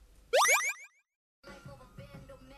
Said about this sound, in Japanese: サビの後半から G ファンクに切り替わる流れの部分です。どうぞ。